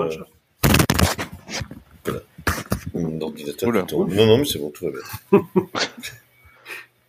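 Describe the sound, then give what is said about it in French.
A dog snorts and snuffles while objects bang and clatter in a few sharp, loud knocks as the dog gets into mischief; a person talks and laughs over the commotion. “c'est le chien qui fait encore des bêtises.”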